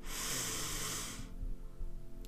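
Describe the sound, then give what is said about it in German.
A long, deep breath drawn in through the nose, one of three deep breaths taken while seated in a guided breathing exercise, a steady airy rush lasting over a second, then fading into quiet low background tone. No talking. “Wir atmen durch die Nase ein”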